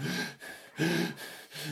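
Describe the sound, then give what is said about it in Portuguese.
A voice imitates the laboured, wheezy breathing of a woman at the peak of a flu, with rasping gasping breaths in a steady rhythm of about four in and out cycles, fairly loud, with no talking. “Sabes aquela tosse quando estás no pico de uma gripe? Uhum. Mesmo. Estás a ver? Ela estava assim e a respiração dela era assim.”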